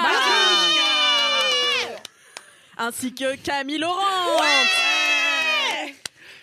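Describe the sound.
A woman lets out two long, loud, high-pitched cheering screams, with a short burst of speech between them, exuberant like celebratory shrieking.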